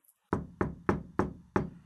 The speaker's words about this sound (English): She tentatively knocks and steps into the room.